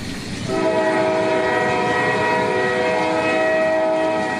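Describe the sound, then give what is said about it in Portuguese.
A loud, sustained train horn blares over the heavy rumble of a passing train, holding steady for several seconds with no voices. “Continua a greve na CP e dos maquinistas, aliás, está marcada até 21 de fevereiro.”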